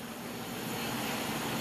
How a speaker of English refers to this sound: I'm capturing again the state engaged in patrolling conduct. That's the helicopter.